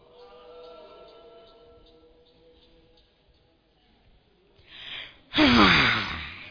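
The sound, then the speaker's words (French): A person in church lets out an exaggerated yawn during the pastor's sermon: a long, drawn-out voiced moan that trails off, then a sudden loud, breathy huff of air. “Leur, seule réponse au sermon du pasteur est un grand bâillement.”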